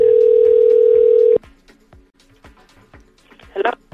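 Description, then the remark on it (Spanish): A loud, steady telephone busy signal hums for over a second, then cuts off abruptly, leaving faint clicks and line noise with a short crackly burst near the end. “Suena ocupado.”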